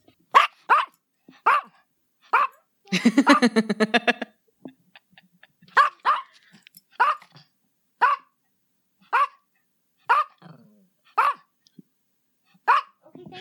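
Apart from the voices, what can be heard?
dog barking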